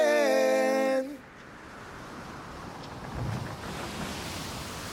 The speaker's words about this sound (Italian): E con questo bel suono di mare in sottofondo